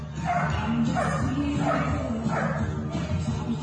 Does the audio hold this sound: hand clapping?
no